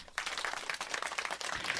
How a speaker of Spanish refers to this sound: Yo no entiendo por qué aplauden ante tal tragedia, pero lo cierto es que los ha roto. Una vez más digo, no entiendo por qué aplauden ante tal tragedia.